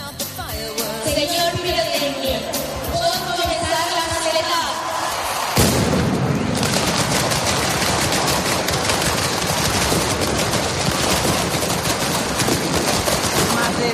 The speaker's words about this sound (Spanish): Valencia huele a pólvora y suena a mascleta.